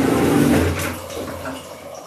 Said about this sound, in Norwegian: Jeg får kanskje avslutte dusjen mens leken ennå er god.